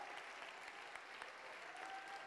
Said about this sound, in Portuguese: Aplaude, igreja!